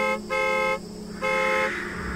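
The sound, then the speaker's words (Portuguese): A car horn sounds three times in quick succession, loud, each honk a steady blaring tone with short gaps between them, the last fading out. “Eu vou dar aquelas três bujadas.”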